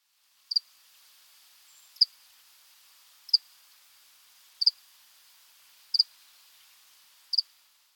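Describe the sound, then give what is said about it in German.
Six short, high-pitched cricket chirps repeat at a steady pace, each a quick double pulse, sounding alone against near silence. “bei mir kann man ein großes Zirpen einfügen.”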